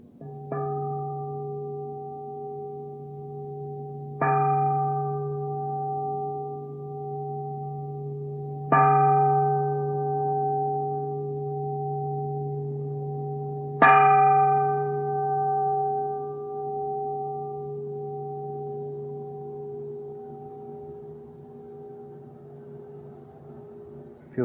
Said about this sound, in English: Please listen to the sound of the bell